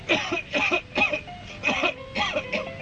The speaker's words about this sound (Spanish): Toma Seneguina y déjate de toser.